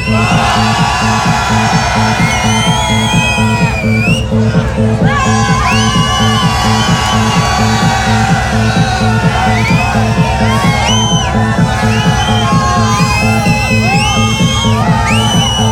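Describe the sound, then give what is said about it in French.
A large audience at the last party night of the year at Le Tremplin cheers and shouts continuously as the host hands out gifts to those who make noise, with high whoops and yells rising over a dense roar of voices, all over a steady pulsing beat of music underneath. “Moi je donne des cadeaux aux gens qui font du bruit”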